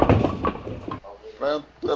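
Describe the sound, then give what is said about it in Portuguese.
A door is closed with a rough, rattling clatter lasting about a second, and then voices speak briefly right afterward. “Fecha a porta aí.”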